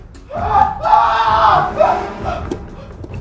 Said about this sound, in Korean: 뜬금없이 뒤에서 비명 지르는 소리가 들리는 거예요. 뭐, 뭐 뭐지?